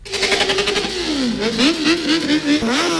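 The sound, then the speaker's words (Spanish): Motorcycle engines rev loudly and continuously at the campsite in front of the circuit in Jerez, their pitch climbing and dipping in quick repeated surges over a steady roar, with no voices. “No solo en hoteles, los motoristas también se han quedado en la acampada frente al circuito, que registraba una ocupación del 99%.”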